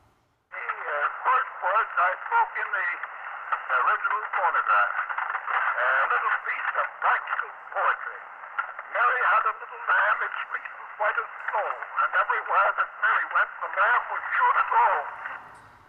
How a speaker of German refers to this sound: der Phonograph sei seine Lieblingserfindung gewesen und er hat 1877 tatsächlich eine Aufnahme gemacht. Wo wir gerade von Schafen sprechen, er hat Mary Had a Little Lamb aufgenommen. Das war eine der ersten Aufnahmen.